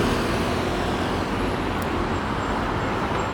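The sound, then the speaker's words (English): Steady, loud roar of street traffic at a traffic light, with the dense low rumble of passing cars and heavier vehicles, including a bus, continuing throughout, with no one speaking. “rather noisy here. I'm surrounded by traffic, my apologies.”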